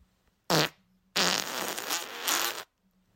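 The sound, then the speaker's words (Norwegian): A fart recording from Freesound: a short, blaring fart followed after a brief pause by a longer, raspy, sputtering one that swells near the end, loud, with no talking. “Det er fra rumpa til en eller annen der sjuk faen der ute som har bare spilt inn uh, eh, feten sin”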